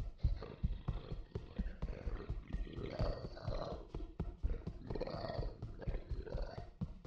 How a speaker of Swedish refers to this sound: Och ja, nu kan du också höra det. Fotsteg som rör sig lite otåligt fram och tillbaka. Som de travar från ena väggen till den andra.